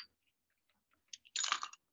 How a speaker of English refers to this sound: And then I'm going to add ice.